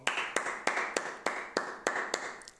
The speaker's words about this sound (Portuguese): Vamos lá bater palmas.